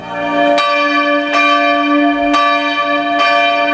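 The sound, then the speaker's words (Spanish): Church bells of the churches in the city of Innsbruck, capital of the Tyrol in the Alps, peal loudly, with several sharp strikes roughly every second over a sustained ringing hum of overlapping tones, and no voices. “Y es típico, pues, escuchar el redoblar de campanas en sus templos que, sinceramente, impone”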